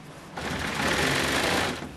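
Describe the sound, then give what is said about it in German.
A sewing machine stitches sofa upholstery pieces together, running steadily for about a second and a half, its rapid needle clatter forming a dense mechanical buzz that starts and stops abruptly, with no talking. “Sorgfalt und Köpfchen sind gefragt, damit sie die jeweils richtigen Stücke korrekt aneinander näht.”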